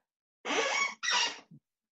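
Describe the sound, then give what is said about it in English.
A chair squeaks twice in quick succession, two loud, drawn-out creaks of about half a second each, followed by a brief low knock. Nobody speaks. “the chair.”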